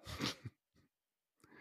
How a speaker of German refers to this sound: Gesundheit. Gesundheit. Gesundheit. Dankeschön. Ich hatte mich extra gemutet, damit es keiner mitkriegt.